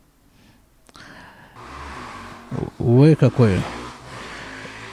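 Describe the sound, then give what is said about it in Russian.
A motorcycle rides along the street outside, its engine noise muffled through a closed window, swelling in and holding steady for several seconds while someone briefly exclaims over it. “Это мотоцикл по улице поехал, если вы слышите.”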